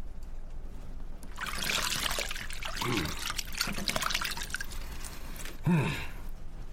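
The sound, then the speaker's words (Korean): Water sloshes and trickles in bursts as hands splash it over a face, in a dramatization of King Jungjong washing his face at the palace, with a pause and then a final louder splash near the end. No one speaks. “자, 다 씻었으니 수건을 가져오라.”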